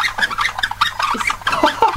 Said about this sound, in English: Look at this. squeaky wheels.